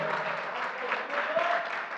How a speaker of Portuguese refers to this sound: E na igreja, aleluia, pode aplaudir o Senhor.